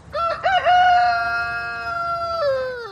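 A rooster crows loudly as a sound effect, one long sustained cock-a-doodle-doo that starts with a few choppy notes, holds a steady tone, and bends downward at the end. No one speaks.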